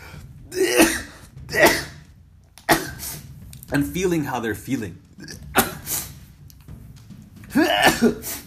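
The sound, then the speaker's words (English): Several sharp sneezes burst out, two in quick succession at the start and another near the end, with a short stretch of someone talking in between. “Excuse the sneezes.”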